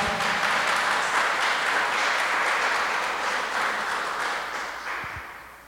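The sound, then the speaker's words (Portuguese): An audience at a Sunday church service applauds the Lord after a prayer in a dense, steady wash of many hands clapping, loud and sustained throughout before gradually tapering off toward the end, with no one speaking over it. “Pode aplaudir ao Senhor, vamos nos assentar.”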